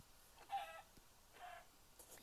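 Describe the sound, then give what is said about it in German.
A video game chicken back in the distance clucks twice, two short, fairly loud bursts about a second apart, with a faint click between them and a quiet background, no one talking. “Nice, da hinten ist ein Huhn.”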